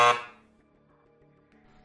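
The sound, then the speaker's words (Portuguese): A theater bell gives the first signal before a performance, a single bright, loud ring that quickly fades into a faint, lingering metallic hum of steady tones. No one speaks. “Vai à campainha e dá o primeiro sinal.”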